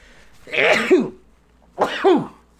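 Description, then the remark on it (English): Two sneezes, spaced about a second apart, each a loud breathy burst that ends in a short voiced yelp dropping in pitch. No one speaks around them. “Ah, came out. Thank God. Only two sneezes too.”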